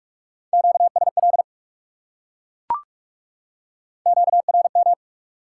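Two quick bursts of high-speed Morse code at 45 words per minute, sending QSO elements, a steady pure tone keyed rapidly on and off, separated by a single sharp click in the pause. Clean and clear, with no voices.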